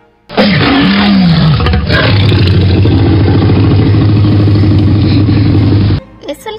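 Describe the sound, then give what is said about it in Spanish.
A Tyrannosaurus rex roar, the tyrannosaurid theropod dinosaur of the late Cretaceous period: one loud, deep, rumbling bellow that starts with a rising growl and holds steady for about six seconds before cutting off abruptly, with no talking over it. “Es el tiranosaurio rex, también conocido como lagarto tirano.”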